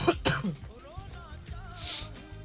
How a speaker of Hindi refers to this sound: खैर तुम्हें नजला हो रहा है खांसी हो रही है खांसी हो रही है गुड लक टू अस कल मैं भी खांसूंगा दो दिन तक